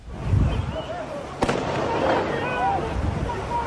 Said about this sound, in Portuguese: Os tiros de fuzil foram disparados por um soldado da PM.